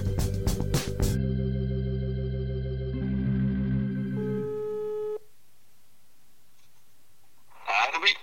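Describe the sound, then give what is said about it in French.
A few sharp clicks, then a steady electronic telephone ringing tone on an outgoing call to a person in lockdown, made to talk about their fridge and their food. The tone holds for several seconds and cuts off. After a pause, a voice briefly answers. “tous les deux jours, je téléphone à des confinés pour parler de leur frigo et de leur assiette.”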